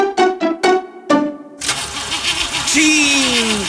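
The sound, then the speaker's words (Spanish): An old car engine cranks in four quick, labored bursts, then catches into a rough, noisy running rumble with a wavering whine, fairly loud. “¿Otra vez tarde por culpa de tu vehículo? Ya no le batalles. Jubila tu auto viejito”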